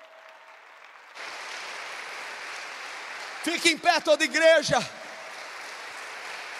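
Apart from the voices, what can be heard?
church audience applauding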